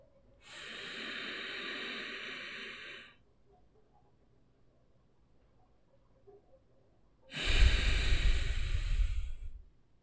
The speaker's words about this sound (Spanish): todo es por la nariz y pasa justo por el diafragma, por eso hace un sonido diferente que el hecho de que sea solamente por la nariz, pero eso te ayuda a calmar y estabilizar tu cuerpo de una manera diferente